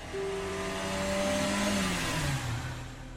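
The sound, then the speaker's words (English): A car engine roars and revs as a man races off from his office in his car, its droning pitch sliding lower while the sound stays loud throughout, with no voices. “I'm coming home, he says, before racing from the office and into his car.”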